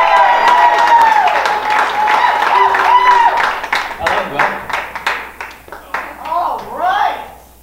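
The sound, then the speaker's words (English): A church crowd applauds loudly with cheering and whoops as one of its core leaders is introduced to preach for the first time. Dense clapping at first, then thinning into separate claps as excited shouts and voices rise above it. “what I have for you for the first time ever is one of our amazing core leaders making noise loud for our boy,”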